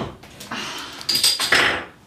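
A giant refrigerator is pulled open, followed by bottles clinking and rattling together in a few quick, bright knocks with a short glassy ring, no voices over it.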